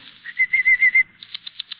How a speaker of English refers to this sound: Watch your canaries jump on their perch